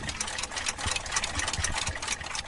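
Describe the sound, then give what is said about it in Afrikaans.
A dense, steady wash of overlapping ticks from more than 200 wristwatches, pocket watches and alarm clocks in a display case in a study of a house at Mokgopong near Naboomspruit, Limpopo, crisp and bright, blending into one busy mechanical chatter with no voices. “Die geluid van meer as 200 pols en sakhorlosies en wekkers in 'n vertoonkas in sy studeerkamer.”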